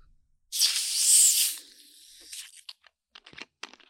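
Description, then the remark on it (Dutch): A loud burst of fizzy, yellow-orange ginger beer hissing out of a bottle, a sharp spray lasting about a second, then softer fizzing and scattered crackles and pops of bubbles as it settles. “een, uh, een spaafles waar iets soort van geel-oranje bruisend uh, drankje uitkomt.”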